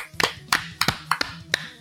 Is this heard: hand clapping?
yes